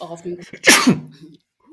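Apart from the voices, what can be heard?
sneeze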